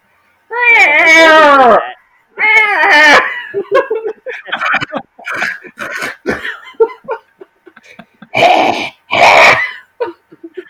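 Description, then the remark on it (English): A voice imitates a cat coughing up a hairball: drawn-out, warbling meow-like retches, then a string of short, rough hacking gags and two final loud wheezy heaves, fairly loud. “coughing up a real hairball right now.”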